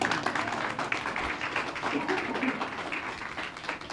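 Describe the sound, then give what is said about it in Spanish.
A church audience breaks into sustained applause for God, a dense steady wash of many hands clapping at once with no gaps, fairly loud throughout. “Dale un aplauso a Dios.”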